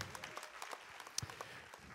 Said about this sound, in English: Come on, give the Lord a round of applause this morning.